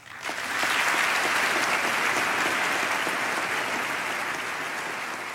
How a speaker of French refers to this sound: J'ai laissé euh, volontairement les applaudissements. Ça, c'était euh, Bill Clinton, euh, son discours de, sur l'état de l'Union en 1995, donc devant, devant les représentants du peuple.